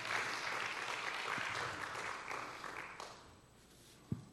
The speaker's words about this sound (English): Come on, you can give the Lord a good round of applause.